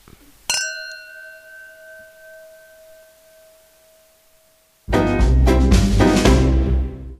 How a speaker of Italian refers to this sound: Cin cin! Cin cin!